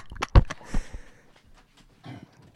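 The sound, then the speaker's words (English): A female pet dog tries to come in, making a few sharp scratching thumps in quick succession, then quieter shuffling and faint snuffling noises, with no one talking. “yeah, then my dog's trying to come in.”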